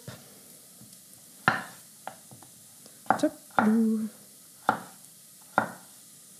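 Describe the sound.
Potatoes being cut into thumb-width cubes of about 2 cm on a board: five or six sharp, irregularly spaced knife chops, with a brief low murmur from a voice between them.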